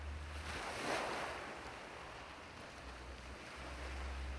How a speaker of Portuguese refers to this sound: O oceano está a poucos metros à sua frente, refletindo o sol radiante, enquanto as ondas batem na terra firme.